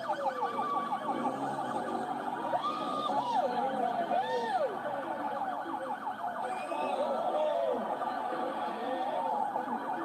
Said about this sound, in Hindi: public को भी देख के आनंद आ गया पब्लिक ने भी तालियां बजाई